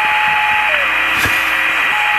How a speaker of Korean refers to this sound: 갑자기 무슨 소린가 하셨죠? 이게 저 라디오 지금 잡음이 나오는 소리예요. 이렇게 채널 돌리다 보면 튜닝할 때 이렇게 나오는 소리예요. 그 소리입니다.